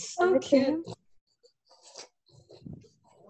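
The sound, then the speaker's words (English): Two harsh snorting grunts from a dog, followed by a stretch of faint snuffling and quieter breathy snorts. “Listen, listen to the snorting With my dog.”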